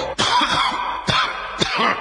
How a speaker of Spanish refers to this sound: que después mañana anda con la tos.